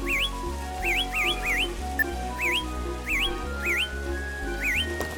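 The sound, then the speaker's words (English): A bright whistle chirps in quick upward sweeps, about eight times in an uneven rhythm, over a steady low musical background. “RC Airplane, Water Gun, Whistle.”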